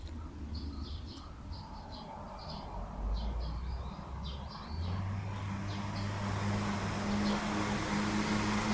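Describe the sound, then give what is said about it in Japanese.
Birds chirp in a quiet wooded thicket, then a car's engine rumble grows louder as the vehicle approaches and passes, its steady hum filling the last few seconds. “車が、車が来ました。”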